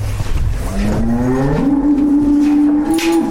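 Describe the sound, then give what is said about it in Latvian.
A Latvian Brown cow, from a herd of about 70 housed in a Soviet-era building next to a calf barn in Latvia, gives a long, drawn-out moo that rises in pitch and holds steady, loud and unbroken for about two seconds, with a low rumble underneath and no talking. “Līdzās teļu novietnei vēl padomju laikā celtajā ēkā ir Latvijas brūno govju šķirnes ganāmpulks.”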